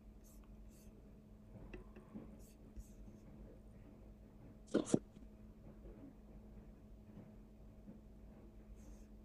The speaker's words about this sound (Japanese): なんかくしゃみしてるな、すげえ。